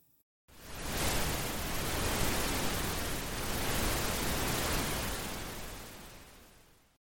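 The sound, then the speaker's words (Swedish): Loud, dense static hiss crackling in headphones cuts in abruptly after a brief silence, holding steady with a rough, crackly texture before slowly fading toward the end. No voices are heard. “Då börjar det spraka i mina hörlurar.”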